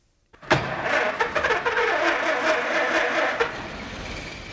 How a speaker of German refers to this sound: Ob dieses Geräusch eines startenden Model T in Henry Fords Ohren wie Musik geklungen hat, ist nicht überliefert. Das Model T, auch Tin Lizzy genannt, begründete Henry Fords Ruhm.